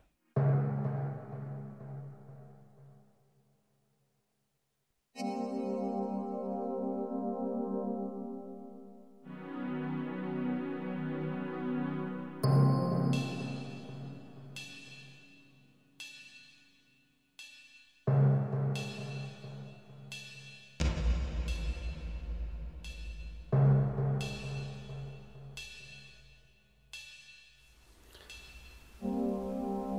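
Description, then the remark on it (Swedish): Sparse, minimalist music built from long, sustained low tones reminiscent of whale song, shifting every few seconds; midway, regular plucked accents and a deep bass drone join in. No voices. “Det är väldigt eh, minimalistiskt får man ju säga.”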